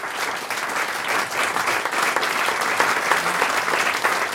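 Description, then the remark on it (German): Enthusiastic applause from an audience of about 100 tenth-grade students after a concert reading: a dense, steady wash of many hands clapping at once, loud and sustained throughout without pauses, with no voices standing out. “Und danach erst ergriffene Stille, dann begeisterter Applaus.”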